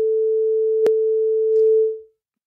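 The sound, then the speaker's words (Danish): A steady, mid-pitched telephone busy tone hums for about two seconds after a caller's line drops, broken by a single sharp click partway through, then fades out into silence. No one speaks. “Der er telefonerne driller lidt i dag.”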